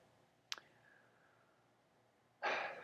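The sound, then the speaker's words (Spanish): A short mouth click, a quiet pause, then a long, loud, airy deep breath, taken with eyes closed, that fills the final half second, with no talking. “Hacemos una respiración profunda, ¿vale?”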